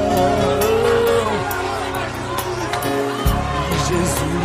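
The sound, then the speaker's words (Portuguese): A dense, steady roar of many voices at once, a loud crowd clamoring with overlapping shouts and babble that barely shifts in level for several seconds. “Posso ouvir o clamor da multidão.”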